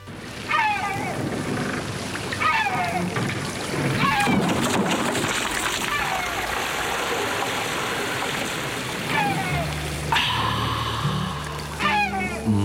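Sea water sloshes and splashes steadily around a small boat, continuous, with occasional short squeaky chirps rising over the wash.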